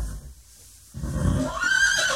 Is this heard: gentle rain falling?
no